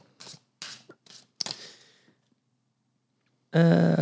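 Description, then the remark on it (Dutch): Cards are shuffled in four or five quick, papery riffling bursts, then a pause of quiet before a loud, sustained tonal sound abruptly cuts in at the end. “Ehm, ik ga de kaarten schudden en jullie één voor één een vraag stellen.”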